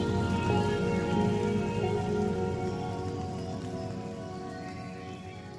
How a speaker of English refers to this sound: And by the time I had finished restoring order and my head hit the pillow that night, the sound of the rain beating on the uninsulated roof immediately put me to sleep.